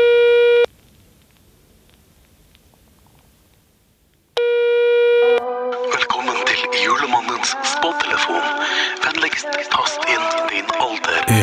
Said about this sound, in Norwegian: Så jeg tror vi bare skal slå nummeret hans, og så skal vi prøve å se om han svarer.